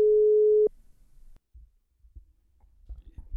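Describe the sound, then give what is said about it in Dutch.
A loud, steady telephone ringing tone sounds once for about half a second as a call is dialed, then cuts off into faint low thumps and rustling, with no voices. “Even bellen hoor.”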